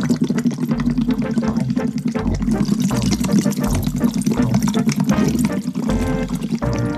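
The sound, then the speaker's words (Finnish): Continuous bubbling and gurgling as a hospital patient blows air through a tube into a bottle of water, a breathing exercise whose back pressure opens collapsed small airways and clears mucus. A steady churning, fairly loud, with a low rumble underneath, lasting the whole stretch. “Ilmaa pitäisi puhaltaa letkun kautta pullossa olevaan veteen, jolloin syntyy vastapaine, joka avaa kasaan painuneita pieniä keuhkoputkien haaroja ja hengitys helpottuu.”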